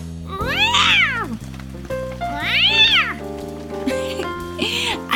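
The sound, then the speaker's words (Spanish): Voices imitate furious yowling cats during a cat-pose exercise on all fours: two long, drawn-out wails that rise and fall, then shorter strained cries, loud over a soft, steady musical background. “y ahora vamos a aullar como gatos furiosos.”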